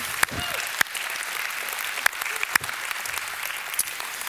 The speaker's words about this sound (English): I think that deserves a clap. Doesn't that deserve a clap?